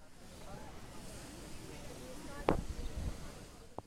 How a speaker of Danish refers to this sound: På pladsen der poserer glade turister i sommertøj foran Brandenburger Tor til lyden af biler, der kører forbi og i den tætte sommerluft, der blander bilstøjen sammen med turisternes snak og en brusende lyd fra to springvand.